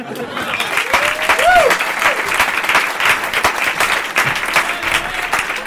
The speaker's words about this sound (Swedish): En stor applåd